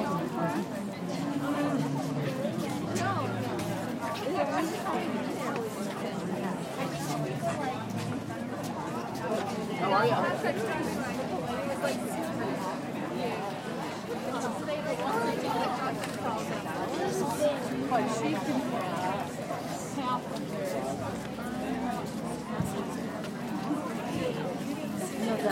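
Steady crowd chatter surrounds the listener while walking through a busy outdoor art fair in Madison, many overlapping voices forming a continuous babble at moderate loudness with no single speaker standing out.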